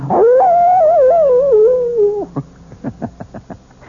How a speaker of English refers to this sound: And the wolf is not only a fascinating creature, he also does something wonderful for all lovers of mystery stories. He makes this chilling sound.